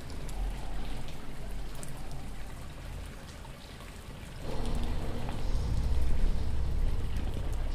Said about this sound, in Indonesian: Hujan terus menerus turun Bumi mengeluarkan airnya.